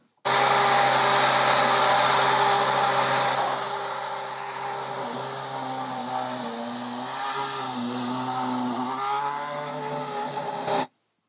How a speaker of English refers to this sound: Yeah, the uh, Force India Formula One car 2012. Uh, and yeah, that was at a an airfield in the United Kingdom.